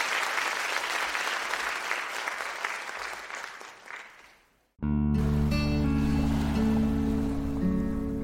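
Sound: applause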